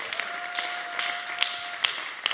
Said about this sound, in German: Hey, wie wäre es, wenn wir uns alle gegenseitig nochmal einen Applaus geben?